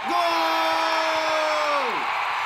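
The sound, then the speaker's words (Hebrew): A sports announcer at a national football competition lets out one long, loud shouted "goal", holding the note steadily for nearly two seconds before it drops off, over a dense roar of crowd noise. “בהתחלה היה נראה שהקבוצה שלי הולכת להפסיד, אבל אז נתנתי פייט ושמעתי את הקריין צועק גול.”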